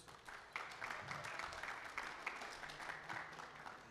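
A crowd claps steadily for a few seconds, a dense patter of many hands with sharp bright transients, sustained at an even level without pause, as a speaker is called up to give announcements.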